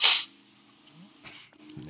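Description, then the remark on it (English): A single quick, hissy sniffle bursts out at the very start, then things go quiet, with faint snippets of a voice murmuring toward the end. “Put the sniffle just, exclamation point.”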